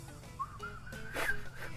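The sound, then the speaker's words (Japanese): A breathy, half-formed whistle wanders through a loose, drifting tune, the airy hiss of breath nearly swamping the thin, wavering notes. It sounds fairly quiet, with no talking. “ちょっと笑って口出てないし できて、ね、あのちょっとさすらう感じの口笛で”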